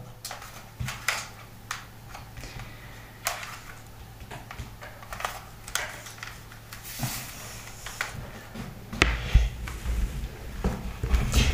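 Plastic clicks and taps as a computer keyboard is handled and plugged in at 9 p.m., with scattered irregular knocks, a rustle, and a steady low hum underneath, growing busier toward the end.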